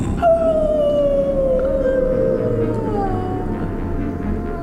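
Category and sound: animal, wolf howling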